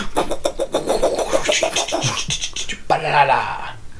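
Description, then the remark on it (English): A voice imitates a helicopter with a fast, rhythmic chopping pulse for a few seconds, fairly loud, then it slides into a higher, sustained vocal whirr. “and make and make helicopter sound.”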